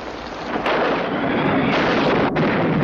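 A close lightning strike that knocks down a tree: a sudden sharp crack gives way to a loud, sustained thunder roar mixed with the steady hiss of heavy rain, filling the whole clip without any voices.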